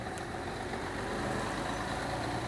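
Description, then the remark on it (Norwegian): A large tourist bus engine idles as the bus leaves the Viking ships museum, with a steady, continuous low rumble and a faint whine above it, holding even loudness throughout with no voices. “Etter et par timer forlater atter en turistbuss vikingskipene.”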